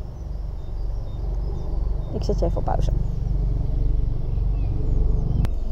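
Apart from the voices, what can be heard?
aircraft flying overhead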